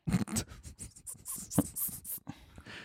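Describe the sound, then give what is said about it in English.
Dogs whimpering and snuffling, a run of short uneven whines and sniffs mixed with panting breaths, with no talking. “My dogs. They're they're whining.”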